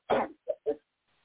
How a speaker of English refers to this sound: Sorry, I coughed and I forgot to anything else off of me.